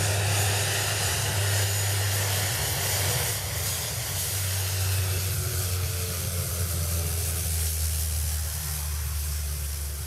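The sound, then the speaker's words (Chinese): An airplane coming in to land after a completed mission, touching down in a very short distance, its engines a steady, loud roar with a deep low hum and a broad hissing rush of air that holds level throughout, with no voices. “你可以看到这个飞机就这么短，它就降落了啊，这个起降是非常的短。”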